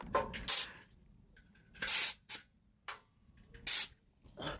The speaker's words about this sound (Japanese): トラックの運行前の点検の音ね